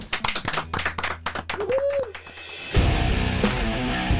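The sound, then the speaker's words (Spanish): Applause: sharp, scattered claps at first, then a dense, steady wash of clapping that runs to the end. A brief rising-and-falling whistle-like tone sounds midway. Nobody speaks. “Un aplauso.”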